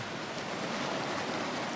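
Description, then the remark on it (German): A steady, full rush of a lively glacier stream bubbling over stones at the end of a dirt track, about 5,000 metres up on the southeast flank of Huayna Potosí in fog, with a constant hissing wash and no voices. “Ich halte am Ende der Piste, an einem munter sprudelnden Gletscherbach.”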